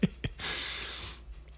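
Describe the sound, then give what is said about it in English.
A couple of short clicks, then a long, airy sniff drawn in through the nose for most of a second, after being out in the cold. It is fairly quiet and nobody speaks. “sorry for the sniffling.”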